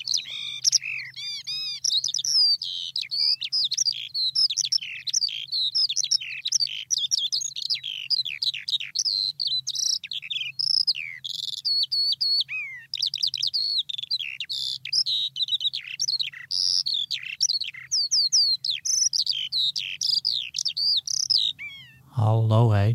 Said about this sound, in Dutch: veldleeuwerik, dat is wel een kleine uitslover. Ja, het mooie is dat eh, je hoort ze steeds minder helaas.